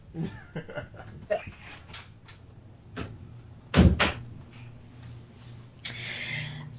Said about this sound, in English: It sounds, the door was closed.